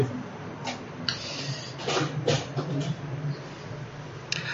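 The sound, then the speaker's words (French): A few short clicks and plastic clatters as a small electric fan is handled and its orientation adjusted, over a steady low hum with no one speaking. “Excusez-moi, je un peu l'orientation du ventilateur.”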